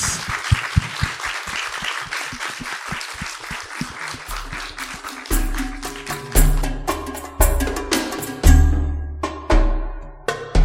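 An audience applauds the speakers of a masterclass with dense, steady clapping. About halfway through, a jingle with deep bass notes comes in, and the clapping thins out beneath it.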